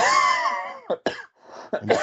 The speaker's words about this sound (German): bei mir hustet es auch schon wieder rum.